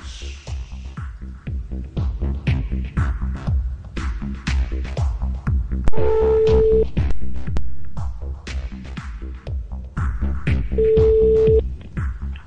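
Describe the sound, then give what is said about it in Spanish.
Two brief, steady electronic tones from a mobile phone dialing and ringing, as a call is placed by mobile to a spaceship, sound over a busy, pulsing music bed, one near the middle and one near the end. “a la nave espacial llamamos con móvil.”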